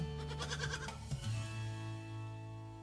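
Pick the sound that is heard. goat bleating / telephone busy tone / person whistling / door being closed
goat bleating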